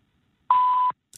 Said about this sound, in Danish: Velkommen til telefonsvaren. Indtal en meddelelse efter klokken.